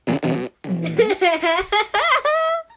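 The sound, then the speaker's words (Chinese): A voice imitates a fart with a short, buzzy, sputtering raspberry, then carries on with a string of loud, high, pitch-sliding vocal squeals that sound like playful giggling. “他干嘛了？ 放屁屁。”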